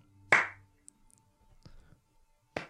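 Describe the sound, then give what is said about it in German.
Three slow, single hand claps spaced roughly a second apart, each sharp and crisp. The first and last ring out loudly while the middle one is softer, with quiet between them. “und dann so immer so alle fünf Sekunden einmal klatscht und er meint dann so, ja, alle fünf Sekunden, jedes Mal, wenn ich klatsche, dann stirbt in Afrika ein Kind”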